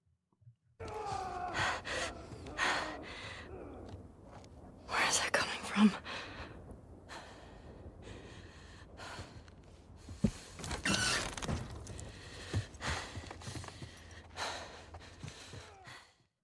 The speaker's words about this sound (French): on termine avec deux samples qui sont des samples de respiration